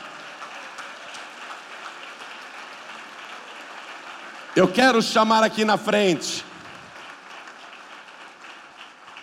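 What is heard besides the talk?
audience applauding in church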